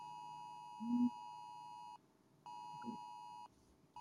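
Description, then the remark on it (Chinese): An alarm beeps during a class while earthquakes are occurring, with a steady, mid-pitched electronic tone in long sustained pulses, separated by brief gaps of silence, with a few faint low murmurs underneath. “现在是警报，嗯，所以大家安住就可以了，嗯，对不对？”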